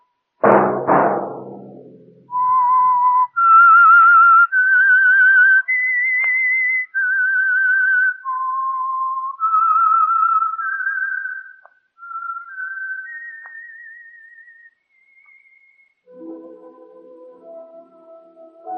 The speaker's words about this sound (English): Let that whistle be your signal for the Signal Oil program, The Whistler, each Monday at 8.